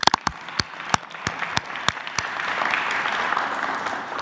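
A few sharp, separate claps ring out at first, then more hands join in and it swells into steady, dense audience applause for gas station attendants, congratulated for their honesty, continuing to the end.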